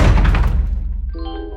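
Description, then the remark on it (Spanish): A single loud bedroom door slam with a heavy low thud that rings out and fades, followed by steady sustained tones coming in near the end. “Fui a mi habitación y la cerré de un portazo.”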